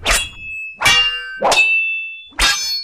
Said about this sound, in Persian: جایی شبیه استادیوم آزادی بود مالا مال از جمعیت شهاب وسط زمین داشت با مردی که بهمن میدونست بازجوی او هست شمشیربازی کرد و صدای چکاچک شمشیرهاشون در سکوت محض تماشاچیان چیزی شبیه صدای رعد بود